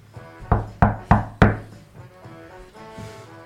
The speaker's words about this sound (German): Das dritte Klopfen geht eigentlich so in die Luft, als die Tür aufgerissen wird.